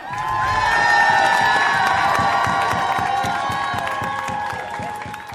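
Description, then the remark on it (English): A graduating class erupts in loud, sustained cheering after a speaker tells them he will pay for their college, with many high-pitched screams and shouts layered over rapid, continuous clapping that barely fades across the whole stretch. “And at that moment, pandemonium broke out.”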